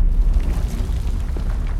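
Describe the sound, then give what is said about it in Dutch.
A deep, rumbling boom of a volcanic eruption, the Thera volcano on Santorini, with heavy low-end energy sustained throughout and a rough, roaring texture, heard alone without any voices. “Zou ze zich de vulkaanuitbarsting van de Terra-vulkaan op Santorini herinneren? Dat zal ze nu toch nog wel weten. Die immense knal.”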